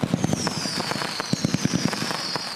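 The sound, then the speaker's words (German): New Year's Eve (Silvester) fireworks: rapid bursts of firecrackers crackle and pop in an irregular rhythm, with a high whistling firework streaking steadily overhead through the whole stretch; no voices. “Partys sind wegen Corona nicht drin und Feuerwerk hm, vielleicht maximal auf dem eigenen Grundstück.”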